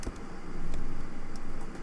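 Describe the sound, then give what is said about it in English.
A car drives past, its broad road noise swelling to a peak partway through and then easing off slightly, with no voices. “Here comes a car. Car goes past.”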